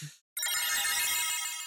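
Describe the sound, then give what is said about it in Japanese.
A telephone rings in a bright, buzzy electronic trill that holds steady for over a second after a brief tone and a short gap of silence, with no talking. “本当にさ、そういう気になったら僕はね、アリストテレスにね、電話しようかと思ったんだけど、電話番号わかんないどころか電話できねえじゃんか。”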